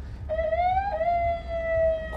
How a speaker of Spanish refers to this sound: Pucha, tengo una, una, patrulla atrás mío.